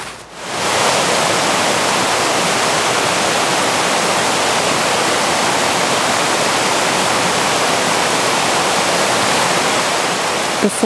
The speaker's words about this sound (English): Before I knew where I was headed, I found myself at the water on campus. The continuous rush of waves drowned out my thoughts.